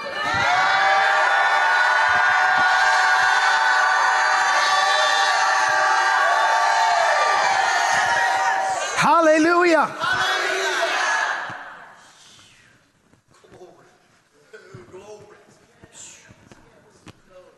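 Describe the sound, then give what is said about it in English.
A large audience shouts and roars loudly together at a preacher's call, a dense sustained wall of voices lasting around ten seconds before dying away into scattered calls and murmurs. “And if you believe it, shout like you've never shouted.”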